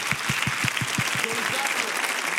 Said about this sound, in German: Komm mal, lass uns Gott mal einen richtig großen Applaus geben.